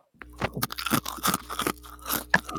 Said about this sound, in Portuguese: Interessante se tu, mastiga, se tu falasse enquanto mastiga, fica melhor ainda.